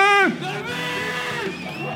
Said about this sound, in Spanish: Así suena el público del Hop Escalante.